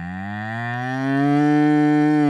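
A single drawn-out cow moo, low and steady with a rich droning tone that swells louder toward the end, heard clearly on its own with no talking.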